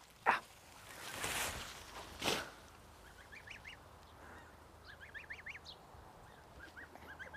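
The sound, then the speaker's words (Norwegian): A few rustling thumps as something is tossed in to the hens, followed by bursts of soft, rapid clucking and chattering from turkeys and hens, at a moderate level. “Så altså, hiver vi dette òg inn til, til hønsene. Da kanskje kalkunene skal få noe å herje med.”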